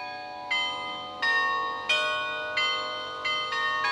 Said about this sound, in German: In den 1970er Jahren sind neun Glocken dazugekommen. Und seitdem kann man auf diesen elf Glocken auch Melodien spielen. Und das macht im Oberturm seit Jahrzehnten der gleiche Garionneur.